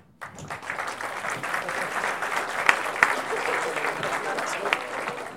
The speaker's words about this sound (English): The Dutch people will start by applauding you.